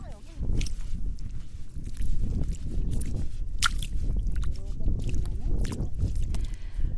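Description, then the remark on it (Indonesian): Wet, squelching steps of bare feet sinking into soft tidal mud while walking into the sea, repeated irregularly, with sloshing water and faint voices in the background. “Produser Aru mencoba memasuki laut sepanjang tanah berlumpur dengan kaki telanjang.”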